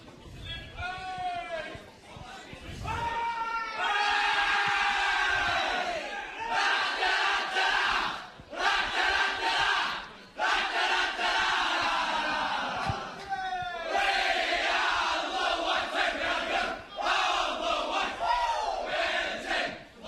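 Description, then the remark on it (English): A football team bellows a victory song together in a circle, heard on live radio as they celebrate moving through to week two of the finals: loud rowdy group voices in sustained bursts with brief breaks between lines, rough and shouted more than tuneful. “As they're about to sing this I really hope no one swears or anything.”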